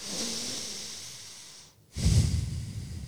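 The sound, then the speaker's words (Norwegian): Steady nasal breathing: a long soft inhale, a brief pause, then a fuller, slightly louder exhale through the nose, with no talking. “Puster rolig og eh, har mye mindre ubehag.”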